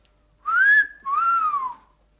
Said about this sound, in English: when I heard a whistle.